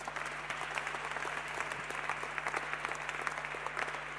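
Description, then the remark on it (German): A crowd applauds steadily for about four seconds for a team of volunteers who work with children: a dense, even wash of many hands clapping, with no voices standing out. “Dicken Applaus.”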